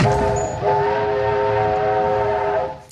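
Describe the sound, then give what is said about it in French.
A train whistle blows one long, steady, chord-like blast, loud, with a short hitch near the start before it holds and then cuts off. No one speaks. “un film réalisé par Zinman, vous savez, euh, le réalisateur du Train sifflera trois fois. Celle-là, on ne l'avait jamais faite.”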